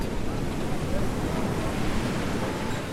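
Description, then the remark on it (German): Steady Atlantic surf washes continuously onto a crescent-shaped golden beach framed by a beige-red rock wall in the Bahia dos Golfinhos, with a few kayaks in the surf; a broad, loud rushing roar with gentle swells, without any voices. “Ein sichelförmiger, goldfarbener Strand, gerahmt von einer beige-roten Felswand. In der Brandung ein paar Kajaks.”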